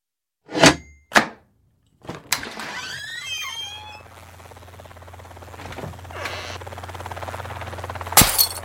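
Two sharp knocks, then a loud crash as a window pane is smashed, with shards ringing and tinkling briefly before a steady rumbling background and one last sharp hit.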